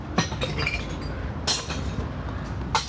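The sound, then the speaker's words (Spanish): Glass bottles clatter and smash as people take turns dropping them into a glass recycling bin, three sharp crashes spaced a second or so apart over a steady low outdoor rumble. “Pues pero bueno, vamos a empezar con una actividad que le gustó por algún motivo a la gente eh, la última vez, que es que vamos a reciclar vidrio.”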